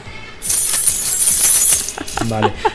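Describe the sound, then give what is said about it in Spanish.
A bunch of keys on a keyring jingles loudly up close, shaken steadily for over a second, then a few lighter metallic clinks trail off with a brief voice underneath. “Esto no es un sereno ni es un carcelero, es simplemente las llaves de Conchi que llevan un llavero.”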